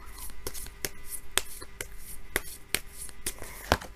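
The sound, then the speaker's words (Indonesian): Tarot cards being shuffled, a stream of soft papery riffling with sharp crisp snaps at irregular intervals, no voices over it. “Tadi waktu ngocok ya energinya kerasanya complicated kayak yang berat gitu.”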